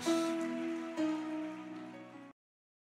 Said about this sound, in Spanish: ¿Cuántos dan un aplauso a Jesús?